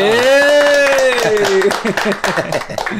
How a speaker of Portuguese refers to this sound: Uma salva de palmas, né? Aê!